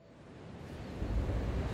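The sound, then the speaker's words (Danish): Ocean waves wash onto a beach in a steady, broad rushing roar that swells louder partway through, heavy in low rumble, with no voices. “Mig og jeg vi taget en tur ned til stranden, derfor I måske kan høre lidt bølgeskuld”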